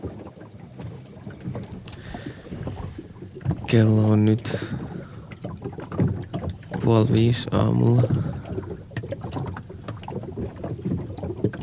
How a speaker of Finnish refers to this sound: Veneessä oli välillä hiukan vaikeuksia nukkua. Alkuun niin rauhoittavan tuntuinen laineiden liplatus veneen kylkeä vasten muuttui aamuyöstä melkoiseksi kolkkeeksi.